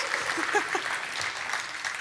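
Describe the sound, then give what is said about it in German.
Steady applause from an audience thanking two helpers, a dense even patter of many hands clapping at moderate volume throughout, with a faint voice or two briefly audible underneath. “Und vielleicht können wir jetzt vorab schon mal Ihnen äh, mit einem Applaus Danke sagen.”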